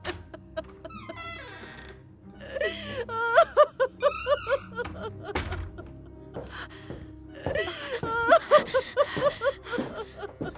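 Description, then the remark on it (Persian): Several voices cry and wail together in sobbing bursts with rising and falling moans, breaking into two main waves of weeping separated by a brief quieter gasp. “چرا گریه میکنید میشه به منم بگی”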